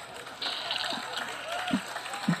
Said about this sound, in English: So if we do a crowd laughing, you could also